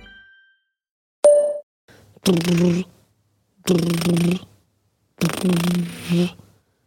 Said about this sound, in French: ça c'est le bruit du téléphone qui vibre.